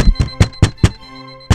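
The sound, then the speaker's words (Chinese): Rapid, heavy, impatient knocking on a door from outside: five quick, evenly spaced thuds, a brief pause, then one more hard knock. The blows are loud and dull, with no voices. “从门外传来急躁的敲门声，想必他现在心情糟透了。”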